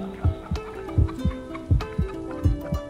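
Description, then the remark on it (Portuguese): A human heartbeat, among the sounds of Earth recorded on the Golden Record, thumps in clear lub-dub pairs, about four beats at a calm, even pace, muffled over a faint sustained hum. “Batidas de um coração humano.”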